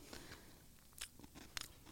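Soft crunching of flaky Maldon sea salt being chewed in the mouth: several brittle crackles, with two sharper crunches standing out over a quiet background and no talking.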